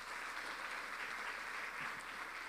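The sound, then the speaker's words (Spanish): Steady applause from a church audience for the King of Kings, Jesus, fills the moment, a dense, continuous patter of many hands clapping at even volume, with no voices heard over it. “Dele un aplauso al Rey de Reyes.”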